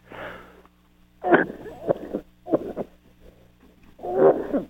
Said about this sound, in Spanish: Perdón, me dio tos.